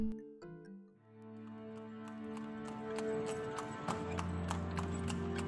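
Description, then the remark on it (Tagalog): Horse hooves clip-clop in a steady, even rhythm as a single horse pulls a two-wheeled tartanilla (kalesa) carriage, the sharp clacks continuous beneath a low, sustained tonal hum. “Ang Tartanilla nga giila usab nga kalesa sa Filipino dunay duha kaligid ligid o gibitad sa usa ka kabayo.”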